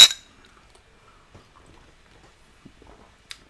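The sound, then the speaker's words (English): Glasses of dry Niigata sake mixed with Red Bull clink together in a toast: one bright, ringing clink right at the start, followed by near silence with faint handling noises and a softer second tap near the end. “All right, cheers. Cheers.”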